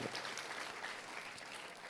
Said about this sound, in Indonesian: Tuhan akan pulih Katakan amin. Kita kasih tepuk tangannya yang paling meriah buat Tuhan.